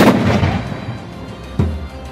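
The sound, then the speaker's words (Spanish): A deep, booming cannon blast rolls out at the start and rumbles away, followed by a second heavy boom a moment later, both loud and resonant with no voices. “Sus cañones disparaban con tanta fuerza, con un solo disparo podía destruir barcos.”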